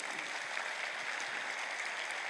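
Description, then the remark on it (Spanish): An audience applauds the Lord during a sermon in a steady, dense wash of clapping that holds an even loudness throughout, with many hands blending into continuous noise and no voices standing out. “Dame un aplauso al Señor de todas maneras.”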